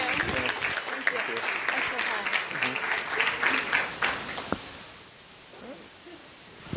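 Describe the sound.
An audience breaks into steady applause for a speaker at an event with a booth, a dense crackle of many hands clapping at moderate volume that tapers off after a few seconds, with some voices mixed in.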